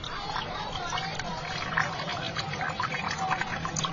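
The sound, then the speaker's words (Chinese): Water trickles steadily from a copper clepsydra, an ancient Chinese water clock, on a street corner at Shuangmendi in Guangzhou: a continuous bubbling, splashing flow with small bright drips scattered through it and a faint low murmur of voices underneath. “店铺间交织着咚咚的音乐声和叫卖声，淹没了街角铜壶滴漏的潺潺。”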